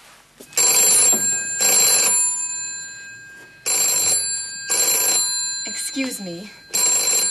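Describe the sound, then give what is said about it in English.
A telephone bell rings loudly in repeated short bursts, about five rings in a paired pattern, with a brief spoken phrase between the last two rings. “That's the phone.”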